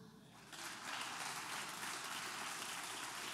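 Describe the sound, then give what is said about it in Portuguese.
An audience breaks into applause after a brief quiet moment, a steady, dense patter of many hands clapping that holds at an even level, with no talking over it. “Dá um aplauso a ele.”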